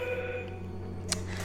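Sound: telephone ringing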